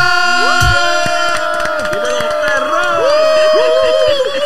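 A loud crowd cheers and applauds steadily throughout to welcome a special guest on a show, with scattered whistles and horn-like tones rising and sliding above the dense roar of voices and clapping.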